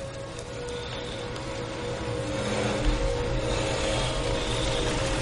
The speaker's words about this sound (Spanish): En la carnicería sale carne de una picadora.